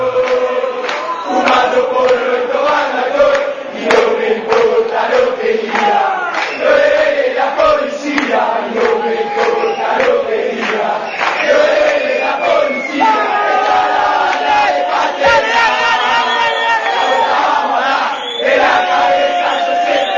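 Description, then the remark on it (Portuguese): Football supporters of a red-and-white club from Paternal, Buenos Aires, chant the club song "La Banda de Paternal", a loud mass of voices singing together in a rough unison melody, with steady rhythmic pulses and shouts carrying on without pause. “E nós vamos ouvir agora a, a canção que, que canta que esta é La Banda de Paternal.”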